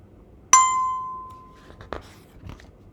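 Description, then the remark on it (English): A bicycle bell rings as the rider goes along the west side of Beihai Park: a single bright ding rings out and fades over about a second, followed by a couple of faint metallic clicks against quiet background noise. “Back on my bike, I ride along the west side of Beihai Park.”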